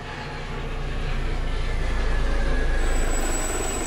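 helicopter flying overhead

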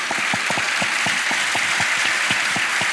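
people applauding

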